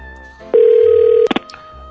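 A telephone tone holds steady for under a second, then a few quick dialing beeps follow as a call is dialed to a fortune-teller's shop, clear, with no voices.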